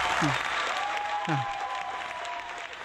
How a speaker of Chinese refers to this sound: 来，掌声欢迎